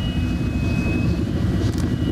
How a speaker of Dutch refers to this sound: Ja, nu hoor je hem. Dit is hem. Ja, dit is het. Dat noemen ze in Engeland het wokka-wokka geluid van de Chinook. Karakteristieke geluid.